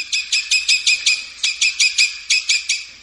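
A sabiá-cica parrot calls alone, giving a rapid run of about thirteen harsh, raspy chirps in quick bursts of three to five, with brief pauses between.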